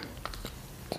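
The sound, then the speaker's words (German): A few soft, wet lip-smacking clicks from a child, scattered and faint in the background of otherwise quiet surroundings, with no one talking. “Man hört so ein paar Schmatzgeräusche im Hintergrund.”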